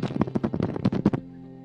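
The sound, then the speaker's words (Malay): A quick run of about a dozen sharp, loud knocks in a fast, slightly uneven rhythm, stopping abruptly and followed by a faint low hum. “Ketuk, siapa ketuk?”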